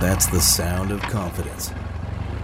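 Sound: boat engine starting up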